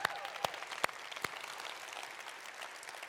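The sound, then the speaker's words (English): An audience claps together in a dense, steady patter for everybody involved in Refresh this weekend, with a few sharp, louder individual claps standing out at the start before the applause settles into an even wash. “So let's give a round of applause to everybody involved in Refresh this weekend.”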